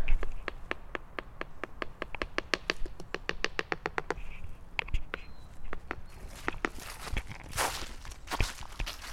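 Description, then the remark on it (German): A woodpecker works on a tree in the background outdoors in light fog, a steady run of sharp, rapid taps, then slower, irregular knocks, with no one talking. “Vielleicht könnt ihr schon hören, im Hintergrund hören wir einen Specht, der gerade am Baum bearbeitet und hört mal hier.”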